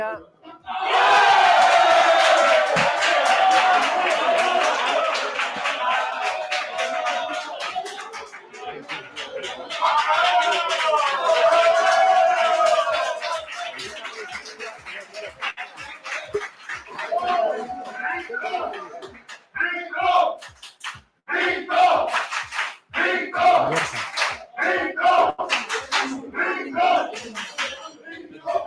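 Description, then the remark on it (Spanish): A large stadium crowd roars and chants in loud rising waves, with sustained voices swelling together, then breaks into rhythmic bursts of shouting and clapping toward the end. “Vamos a escuchar aquí a la gente, eh, que, se venga arriba.”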